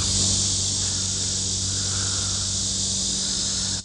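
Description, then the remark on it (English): A steady, dense drone of insects, likely crickets or cicadas, fills the air outdoors in Mount Lebanon on a humid day, a continuous high-pitched buzzing chorus with a low hum underneath and no voices. “And now, yeah, back in Mount Lebanon, listening to the crickets or cicadas, or please tell me, tell me what I'm listening to.”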